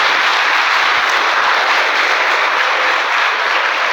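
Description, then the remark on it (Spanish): A church audience applauds the Lord in the morning, loudly and steadily, a dense wash of many hands clapping together for several seconds with no pauses and no voices heard. “Denle un aplauso al Señor en esta mañana.”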